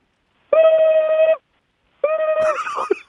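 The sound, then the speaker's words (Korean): Two bursts of an American telephone ring, seemingly imitated by a voice: a steady, buzzy tone held for almost a second, a pause, then a second, rougher ring. “미국 전화벨 소리 미국 전화벨 소리 미국 전화벨 소리 예. 하고 좀 특이하거든요.”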